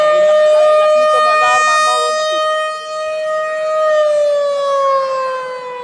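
A loud, sustained alarm siren holds a steady wailing tone with rich harmonics, then slowly glides downward in pitch near the end, sounding alone for about six seconds.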